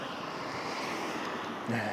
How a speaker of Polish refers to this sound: No i wiatr jest. Więc byle do lasu, bo tam już nie będzie wiało.